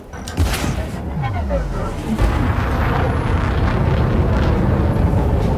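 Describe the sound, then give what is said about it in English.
A rapid chain of video game explosions set off by a bomb, heavy overlapping booms and rumbling blasts rolling into one another, loud, with a dense roar that continues without a break. “a daisy chain of explosions.”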